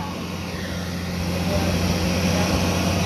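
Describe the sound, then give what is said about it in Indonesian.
A truck's heavy engine rumbles steadily as it passes, a deep droning hum with broad road noise that swells slightly louder toward the end. No one speaks. “Sumpah ada truk lewat.”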